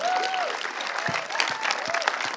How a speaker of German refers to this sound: That was that was all of the older people clapping and cheering there. Das waren, glaube ich, nur die Älteren, die da geklatscht und gejubelt haben.